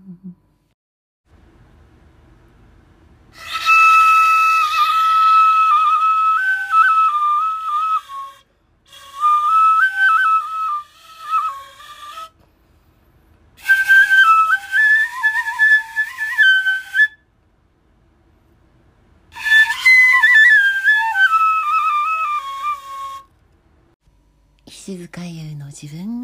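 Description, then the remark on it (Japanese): A shinobue bamboo flute plays a loud, breathy, high-pitched melody in four separate phrases, with sliding and stepping notes and short pauses between them, heard alone without talking. “EP.29「この素晴らしき篠笛の世界」”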